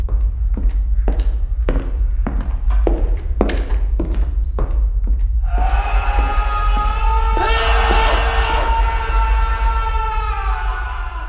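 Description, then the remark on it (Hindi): A series of heavy, evenly spaced thuds gives way to coughing and several voices screaming and yelling in pain at once, loud, overlapping in a chaotic cry that lasts to the end. “खांसी शोर दर्द से चिल्लाने की आवाजें अपने कानों पे विश्वास नहीं हो रहा था”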